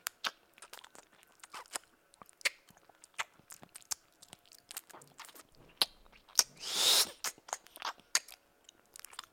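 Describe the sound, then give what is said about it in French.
Wet mouth noises imitate chewing and munching with no food at all: a steady run of sharp smacks and crunchy clicks, with one louder hissing, slurping burst near the end, and no talking. “Si je fais des bruits un peu dégueux de je mange, mais que je mange pas.”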